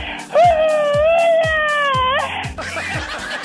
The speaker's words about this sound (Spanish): No te vamos a hacer gritar hoy, ¿ok? Ay, ok, gracias. Échate un grito alterado, viejón.